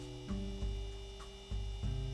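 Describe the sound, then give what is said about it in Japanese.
A steady electrical hum from an ice maker drones throughout, with low-end surges swelling a few times; no one speaks. “冷蔵庫であの、たまにブーンって急に音鳴り出す時あるじゃないですか。いわゆるあの音がずーっと鳴ってます。”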